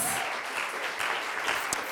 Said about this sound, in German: Applaus.